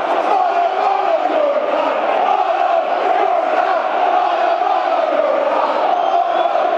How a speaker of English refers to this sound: There's a yellow card shown over there, I think. The crowd and uproar over there.